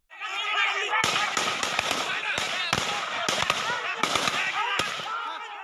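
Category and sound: impact, gunfire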